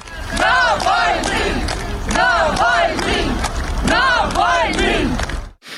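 A large crowd chants Navalny's name in loud, rhythmic unison, applauding as his coffin is brought by minibus to the church, repeating it again and again over a dense wash of applause and crowd noise, then cuts off abruptly.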